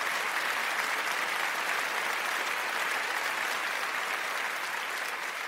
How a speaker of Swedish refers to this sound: Kan vi få såna här applåder som Robin och Johan sätter in? Boken är inlämnad!